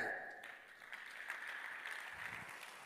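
An audience claps steadily, the dense patter of many hands sustained throughout, fairly quiet.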